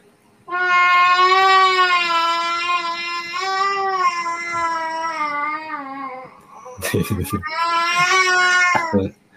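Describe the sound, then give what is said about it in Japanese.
A baby cries in long, drawn-out wails, one steady high-pitched note held for several seconds, then a few choppy sobs before another sustained loud cry. “泣く、泣くっていうよりかは、なんかこう、声を出すっていう感じになってきた。”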